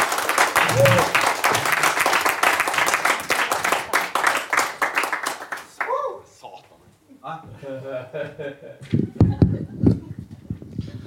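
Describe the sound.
Loud, dense applause from an audience welcoming a performer onto the stage fills the first half, many hands clapping in a steady rush, then it fades out and a man starts speaking.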